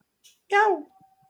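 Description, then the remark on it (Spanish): A single short meow from a male cat, a clear rising-then-falling cry lasting about a third of a second, preceded by a faint soft hiss and followed by quiet. “Ha sido él, ha hecho miau.”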